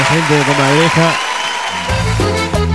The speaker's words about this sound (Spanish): ¿eh? Sí, sí, un aplauso.